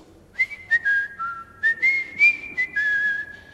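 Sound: person whistling a tune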